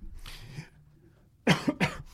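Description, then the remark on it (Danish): A sudden, loud sneeze bursts out in two quick, harsh blasts after a soft breathy intake, with no talking around it. “Prosit. Undskyld.”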